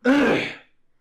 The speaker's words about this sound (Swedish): Fan vad jag harklade mig idag så.